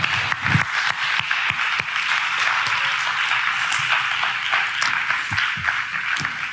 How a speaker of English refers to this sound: So if you guys want to come up, oh, they're clapping. There you go.